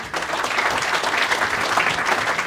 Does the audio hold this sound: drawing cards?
no